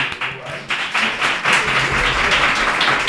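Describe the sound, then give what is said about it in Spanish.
A crowd applauds steadily, dense overlapping claps forming a bright, continuous patter that swells slightly and holds at a fairly loud level for a few seconds. “aplauso más natural.”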